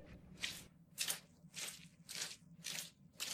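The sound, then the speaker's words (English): Soaking-wet shoes squelch with each step, a steady walking rhythm of about six soggy squishes in a row, fairly loud, with no one talking. “I say, can't you stop that silly noise? It's my shoes. They're soaking wet.”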